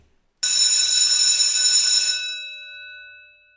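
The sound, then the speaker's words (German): A bell suddenly rings out loud, holding a bright metallic clang for about two seconds before its shimmering tones slowly fade away. No one speaks. “Klingelt gleich.”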